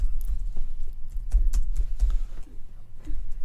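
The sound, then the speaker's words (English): Large fingers thump on a computer keyboard in a quick, irregular run of dull, heavy taps, fairly loud, with a low rumble underneath and no talking. “I'm just uh, you can hear that thump. That's, that's me hitting my keyboard, my big uh, sausage fingers.”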